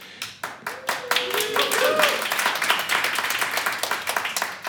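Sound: audience applauding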